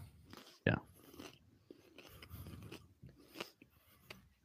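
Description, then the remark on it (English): A loud, crunchy bite into a pizza topped with cornflakes near the start, followed by several seconds of irregular chewing and crunching, with faint mumbled voice sounds mixed in. “that was a really big bite.”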